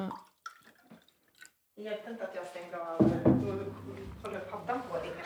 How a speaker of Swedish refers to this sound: Vi drick, tar några klunkar kaffe så länge.